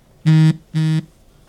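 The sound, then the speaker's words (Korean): A phone text message alert: two short, loud buzzy beeps with a low, harsh harmonic tone, evenly spaced, sounding on their own with no voices. “또 무슨 문자야?”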